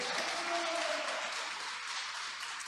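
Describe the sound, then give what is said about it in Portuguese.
An audience applauds the Lord in a steady, dense wash of clapping that fills the whole clip, with a faint hum of voices in the background and no one speaking over it. “Você pode aplaudir ao Senhor com essa palavra?”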